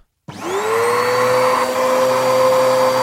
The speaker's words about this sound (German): Aber naja, machen wir uns erstmal ans Aufräumen. Denn ich glaube, da habe ich erstmal genug Arbeit mit. So, fangen wir erstmal mit dem Staubsaugen an.